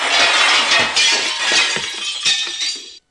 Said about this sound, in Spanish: Entonces todos se echaron sobre la ventana. El cristal se rompió en mil pedazos